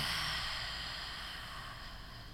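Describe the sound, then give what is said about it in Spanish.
A long, steady breath pushed out through the mouth during a guided breathing exercise, a soft airy rush that slowly fades over about two seconds. It is quiet, with no talking. “Exhala por la boca.”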